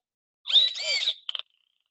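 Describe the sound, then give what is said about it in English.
A short electronic dolphin call played from an animal-sounds toy held up near a speaker: a high chirpy whistle lasting under a second, followed by three quick clicks, clear with no talking. “So they have all kinds of different noises for animals. So I'll put it up near my speaker now. So there's one for dolphin.”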